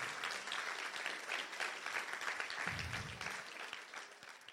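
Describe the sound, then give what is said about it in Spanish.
An audience bursts into loud, sustained applause for the Lord, dense rapid clapping from many hands filling the full few seconds at a steady level, with a brief low rumble partway through. “¿Cuántos le pueden dar un aplauso fuerte al Señor?”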